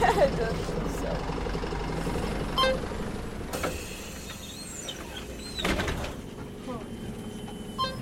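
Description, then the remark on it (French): A city bus in Tbilisi, Georgia, arrives, its engine rumbling and settling into a steady idle, with a brief hiss and clunk partway through like brakes or a door. The bus is crowded. Voices murmur faintly in the background. “C'est notre bus qui arrive là”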